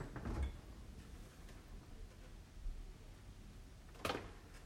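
A fairly large refrigerator in someone else's home opens with a soft low thump, then about four seconds later shuts with a sharper click and seal, without squeaking. Quiet background, no talking.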